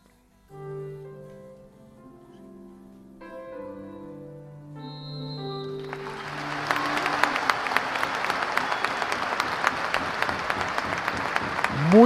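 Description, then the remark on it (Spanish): A stadium falls quiet under a slow, sustained musical tune during a minute's silence in Mallorca for Dr. Bartolomé Beltrán, with people standing, then a huge crowd breaks into loud, steady applause that swells and carries on to the end. “Minuto de silencio, la, gente en pie, era un presidente muy querido, con ese ascenso, ese carisma y la final de la Copa del Rey.”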